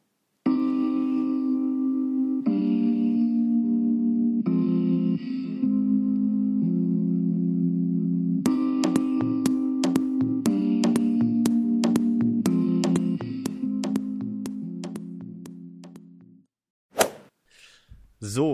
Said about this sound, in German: vielleicht hört uns ja jemand zum Einschlafen, dann spielen wir jetzt was richtig Gemütliches. Natürlich lizenzfreie Musik.